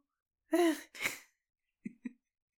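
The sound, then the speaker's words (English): A voice imitates a sneeze: a rising voiced "ah" breaks into a sharp, breathy burst, followed a moment later by two short, quiet sounds. Fairly loud, no other talk. “Sneezing.”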